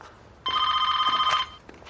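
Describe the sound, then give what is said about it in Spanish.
A single loud burst of a telephone bell ringing from a phone on a piece of furniture in a hallway, lasting about a second with a bright, trilling metallic tone, then cutting off into quiet room noise. “descuelga el teléfono que está sobre un mueble del pasillo.”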